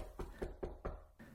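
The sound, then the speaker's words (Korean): Four quick, evenly spaced knocks from outside on a house door in Baghdad, knocked at the order of Caliph Harun al-Rashid during a noisy party inside, fairly soft and hollow, followed by a fainter fifth tap; no voices are present. “한참 시끄러운 와중에 밖에서 문을 두드리는 소리가 들렸습니다.”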